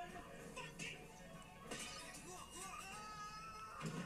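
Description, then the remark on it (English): A dramatic movie-style scream rings out amid a busy, cluttered soundtrack, with sharp crashing and shattering noises bursting through at a few points over about four seconds. “wait, wait, wait, there's going to be a stock scream.”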